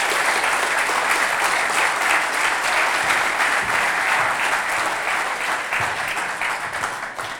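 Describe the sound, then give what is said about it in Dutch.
Sustained audience applause for people asked to come forward to share their life stories, a dense wash of many hands clapping steadily and loudly throughout, easing off slightly toward the end. “En ehm, het is een beetje cliché, maar zou je deze mensen een applaus willen geven?”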